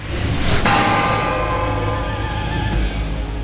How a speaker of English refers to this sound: He apologized to Athena while grabbing the bells from her. He tested the weight, then slammed them together.